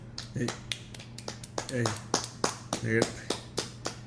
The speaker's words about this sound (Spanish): No, venga, venga, venga, venga, venga. Hay que agregarle unos aplausos.